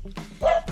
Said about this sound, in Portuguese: provavelmente vocês vão ouvir meus cachorros latindo, porque aqui em casa é um caos, tem sete cachorros.